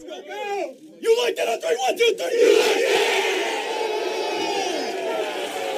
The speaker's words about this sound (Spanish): Fue por ello que una vez terminado el partido, la mejor forma de celebrar en el vestidor fue rompiendo con ese mismo grito, pero ahora con su nuevo equipo.